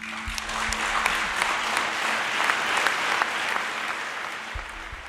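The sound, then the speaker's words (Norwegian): Sustained applause from a large audience fills a conference hall after the speaker's tearful apology over the negotiated agreement, a dense, even wash of many hands clapping that holds steady throughout, with a faint low hum underneath. “Men etter tårene hans, så kommer applausen.”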